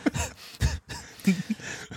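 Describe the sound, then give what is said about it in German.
Close, wet gulping and swallowing sounds right against the microphone, a few distinct swallows in quick succession with short pauses, fairly loud and with no talking. “ich war gerade ein bisschen also, irritiert, oh, wie oh. laut mein, mein Trinken auf meinen Ohren ist.”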